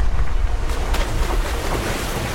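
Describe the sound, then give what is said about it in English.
Atlantic Ocean waves wash along an isolated coast of the African continent in a steady, broad roar, with gusting wind buffeting the microphone and no voices present. “For centuries, they've been scattered by the waves.”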